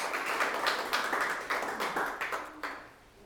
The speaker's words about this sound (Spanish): Dale un aplauso a Él porque Él vive.